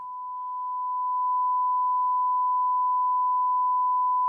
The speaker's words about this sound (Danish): Hvad er det for en fucking hyletone? En hyletone?